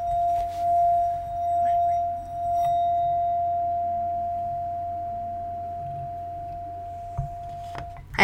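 A singing bowl is struck once and rings with a steady, pure sustained tone that slowly fades over about eight seconds, with a faint low hum underneath and a small knock at the end.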